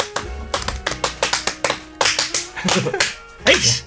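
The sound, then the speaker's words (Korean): A quick run of sharp hand claps, roughly a dozen in an uneven rhythm, bright and snappy, clapped because something has finished, with people talking and laughing over the end of the burst. “끝났다고 박수 치는 거예요.”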